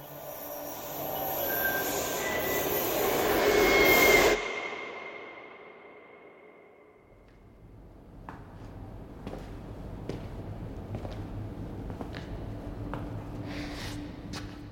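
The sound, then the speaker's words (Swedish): A subway train roars past with wheels squealing loudly on the tracks for about four seconds, then cuts off abruptly, leaving a quieter hum with scattered clicks and knocks. “Och av alla vagnar som gnisslat längs spåren genom decennierna finns det särskilt ett som sticker ut.”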